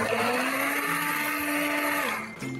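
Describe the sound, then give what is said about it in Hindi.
A mixer grinder whirs loudly and steadily as it blends soup, its motor whine holding constant before briefly dipping and picking back up near the end. No voices. “यहाँ पे हमारा सूप भी रेडी है थोड़ा सा मिक्सी घुमा लेते हैं ये जो सूप है ऐसे ही थोड़ा सा थिक और चंकी रहना चाहिए”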